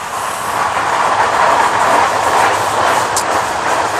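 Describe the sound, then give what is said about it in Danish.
An S-train commuter train rumbles past, a steady, loud roar of wheels on rails with faint clatter throughout and a brief high squeal near the end, no voices. “Og så har I et tog, der kommer nu. Ja, det har vi. Vi har S-toget her.”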